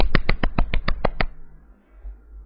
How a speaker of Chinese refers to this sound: 首先，我想要先帮我自己鼓鼓掌。